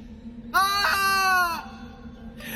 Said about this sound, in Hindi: वो धड़ाम के साथ कॉरिडोर में मुंह के बल गिर जाती है और एक जोरदार चीख उसके मुंह से निकल जाती है